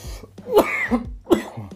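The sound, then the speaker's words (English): A short coughing fit: two harsh, forceful coughs with smaller rasping throat sounds between them, and no talking. “Because I'm about to cough up a lung and die.”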